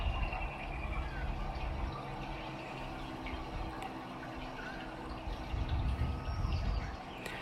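nature, dripping water

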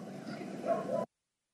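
animal, dog barking

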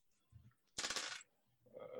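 household object, dice being rolled

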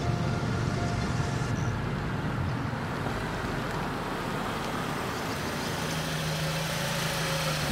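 vehicle, car engine running

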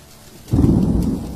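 nature, thunderstorm with heavy rain

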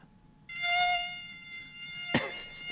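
insect, mosquito buzzing

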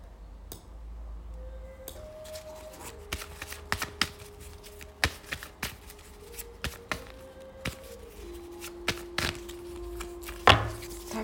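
household object, shuffling tarot cards

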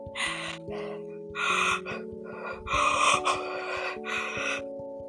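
human body sound, labored gasping breaths

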